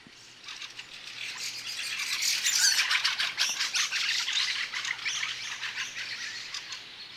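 Fieldfares chatter in a dense, harsh rattling chorus of overlapping calls, building in loudness and staying busy and continuous throughout, with no voices present.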